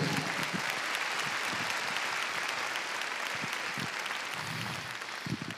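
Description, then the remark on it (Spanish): An audience claps loudly and steadily for the king, a dense wash of many hands filling the whole clip, with a few faint voices and louder individual claps poking through near the end. “Si usted lo cree, le da palmas fuerte al rey.”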